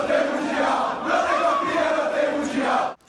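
A large crowd of Palmeiras football fans chants together in loud celebration of winning the Copinha, many voices merging into a sustained, rhythmic roar that fills the whole space before cutting off abruptly.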